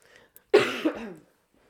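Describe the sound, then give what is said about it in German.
A single sudden cough bursts out loud after near silence, a sharp harsh burst with a brief raspy tail that fades within about half a second. “Sorry, aber da kam ganz plötzlicher Huster.”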